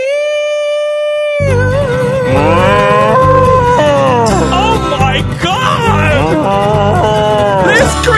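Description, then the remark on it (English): A loud, drawn-out cow moo, from a cow being milked on a stool in a big red barn, rings out steadily at first, then blends into a busy stretch of warbling, shifting tones over a constant low backing, full throughout. “I guess my hands were a little cold, cause when I grabbed that tip, that cow did go.”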